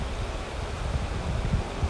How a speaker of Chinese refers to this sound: 听听溪水的声音，觉得好棒哦。